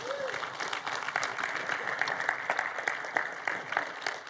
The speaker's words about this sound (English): Welcome to church this morning. Hey, if this is your first time here, we just want to welcome you. And we do that around here by just, we want to honor you. So we clap for you. So welcome.